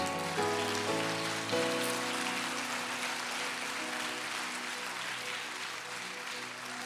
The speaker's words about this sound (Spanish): Si aplaudir, aplaude, no tenga miedo.